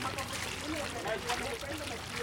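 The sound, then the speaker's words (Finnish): Water runs steadily from a water tap where water is sold, as men fill jerry cans, a continuous splashing rush at moderate volume, with people's voices murmuring in the background. “Vieressä naiset pesevät pyykkiä, miehet täyttävät jerrykannuja ja vesibisnes pyörii.”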